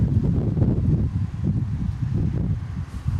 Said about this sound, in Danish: Jeg stiller mig lige sådan her, så kan det være, at det ikke blæser så meget.